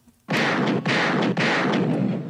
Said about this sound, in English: Gunshots. Gunshots.